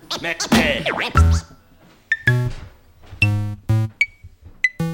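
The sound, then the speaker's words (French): A short radio segment jingle leading into a segment on the LBD: a swooping, zany burst of sound effects opens it, followed by a string of punchy, bright synth-like tonal hits, loud, with no talking. “On va enchaîner avec la LBD, Jingle.”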